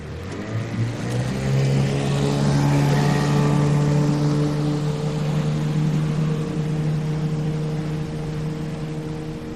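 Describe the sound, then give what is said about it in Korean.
A small boat's outboard motor drones steadily at full speed, its pitch rising slightly early on then holding strong and constant, loud, with no voices, as the boat heads out into a fjord away from the shore. “그러고는 급히 배를 돌려 해안으로부터 떨어진 피오르 안쪽으로 방향을 잡고 작은 선회 모터를 최대한 빠른 속도로 돌려 해안으로부터 떨어진 비오르로 나간다.”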